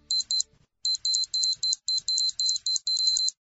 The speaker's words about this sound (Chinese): 但不久，所有火灾自动报警器的蜂鸣都响了起来，他这才意识到。